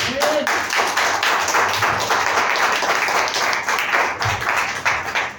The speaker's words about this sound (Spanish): Denle un fuerte aplauso al Señor. Venga.